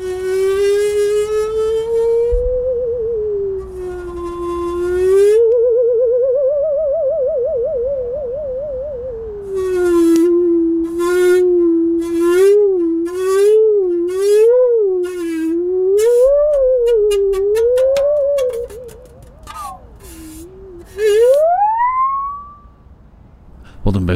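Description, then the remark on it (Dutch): A Sandvik musical saw plays a slow, wavering melody with heavy vibrato, its eerie singing tone gliding and swooping up and down, loud, with a few brief pauses and a final rising glide. “zaag is een Stradivarius? Ja, is een, van Sandvik. Dus Sandvik is wel een, eigenlijk een heel goed zaagmerk.”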